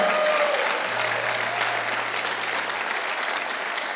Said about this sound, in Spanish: Si alguien lo cree, que le dé un aplauso fuerte al Señor.